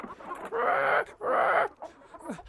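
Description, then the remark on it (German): A flock of hens clucking and squawking loudly, two dense bursts of overlapping cackles followed by a few softer, scattered clucks. “Svenjas Kolleginnen, ein ganzes Hühnerbataillon, hatten bereits ihre Krallen und Schnäbel gewetzt.”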